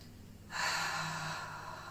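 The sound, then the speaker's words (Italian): A single long, deep inhale through the nose, a first deep breath, starting abruptly and sustaining with a soft airy hiss, fairly loud, with no talking. “Ora fai un primo respiro profondo. Inspira con il naso”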